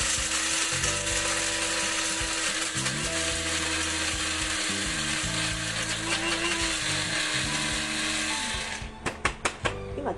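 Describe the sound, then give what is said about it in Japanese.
A motorized coffee grinder whirs loudly and steadily for about nine seconds, grinding medium-roast, non-decaf coffee beans to a medium-fine grind, its pitch shifting slightly as beans break up, then winds down with a few short clicks and taps near the end. “はいではね、えーと、とちょっとうるさいかもしれませんけど豆をひいていきます”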